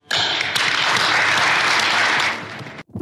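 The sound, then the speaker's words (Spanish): An audience breaks into sustained applause in recognition of producers, business owners and merchants, a dense crackling wash of many clapping hands that holds steady and loud for about two seconds before tapering off. “Yo quiero agradecer la colaboración de los productores, de los empresarios, de los comerciantes mi reconocimiento y un aplauso.”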